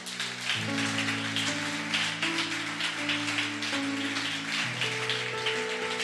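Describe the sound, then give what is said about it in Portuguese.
A church audience applauds the Lord during a sermon in a steady, dense wash of clapping for several seconds, while sustained keyboard chords hold and shift underneath. No one speaks. “Aplauda o Senhor.”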